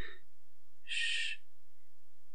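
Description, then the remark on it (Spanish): A voice makes one short, steady "shh" hush, a soft hiss lasting about half a second, demonstrating the Spanish "sh" consonant sound as made when hushing for silence, otherwise quiet, with no talking around it. “Si ustedes hacen el sonido sh, como cuando hacemos silencio,”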